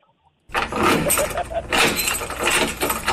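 A door being closed, with a loud, sustained rattling and clattering that starts abruptly after a moment of silence and continues for a few seconds.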